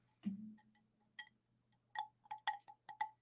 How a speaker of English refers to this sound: I hope all of you ASMR bros are getting everything you need to out of this. Can I get a little glass clink for you?